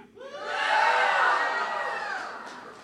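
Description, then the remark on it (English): An audience erupts in loud cheering and whooping in response to a poll asking who thinks a hot dog is a sandwich, swelling quickly, holding for a couple of seconds, then tapering off, with many voices blending into one roar. “If you think that a hot dog is a sandwich, let me hear from you.”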